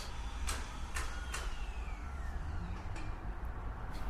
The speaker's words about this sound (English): That was kind of a cool sound effect of the drill going, kind of in an audio sense, kind of echoing the idea of things shutting down.